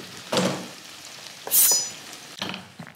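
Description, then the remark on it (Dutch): Food sizzles steadily in a pan, a continuous crackling hiss that swells in a few louder bursts, with a brief bright metallic ring in the middle. No one speaks. “Zet vuur uit.”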